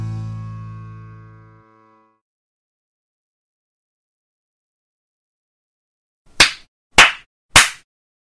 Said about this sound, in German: Willst du nicht nochmal klatschen? Bitte sehr.